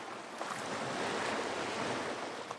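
Soft, steady wash of ocean waves on a shore, a continuous gentle hiss with faint swells and no voices.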